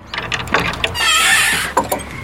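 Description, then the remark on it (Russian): A priest works a padlock off doors at a monastery: a few sharp metallic clicks and rattles, then a drawn-out grating metal scrape, ending in two more clunks. No one speaks. “снимает с дверей замок.”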